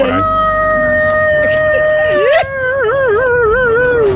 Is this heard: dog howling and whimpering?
yes